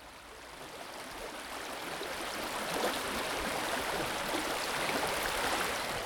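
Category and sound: nature, rushing river water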